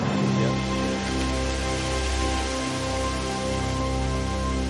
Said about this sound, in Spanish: Venía, venían pues, nubes, venía lluvia.